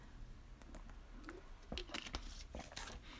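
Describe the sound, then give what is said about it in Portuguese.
Someone takes a quick sip of water, with soft clicks and faint handling noises from a cup or bottle and a couple of small gulps. No one speaks. “Desculpem, vou só beber um bocadinho de água.”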